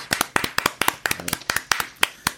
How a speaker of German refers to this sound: Dann stehe ich auf und klatsche. Ja. Ja, das passt.